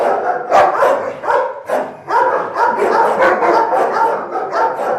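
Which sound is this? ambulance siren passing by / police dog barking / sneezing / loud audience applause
police dog barking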